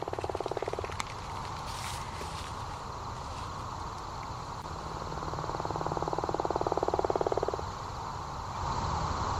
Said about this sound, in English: yeah so that's a gopher frog call. It's kind of a rolling snore. um, it lasts for about three seconds, um, but that's a single. Fr- that's a single male calling all alone. You can barely hear anything else.